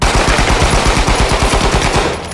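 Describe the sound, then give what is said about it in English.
A loud, rapid burst of police rifle gunfire at a police barricade, as Minister of National Security Roy McGann is gunned down en route to Gordon Town. Shots crack in a fast steady rhythm for a couple of seconds before tapering slightly at the end, with no voices. “Roy was gunned down in a hail of bullets from police rifles without a response or retort.”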